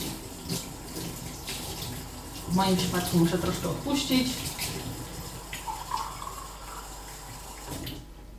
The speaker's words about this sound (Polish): Teraz naleję sobie wody. Staram się oczywiście, żeby była jak najcieplejsza